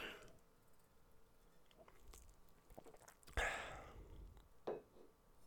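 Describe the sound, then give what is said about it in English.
Someone takes a drink, with a couple of short, wet sipping and slurping sounds and a swallow, set against quiet background noise and no talking. “Let me take a sip here.”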